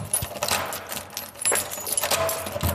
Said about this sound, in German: Zuschließen. Tür zu.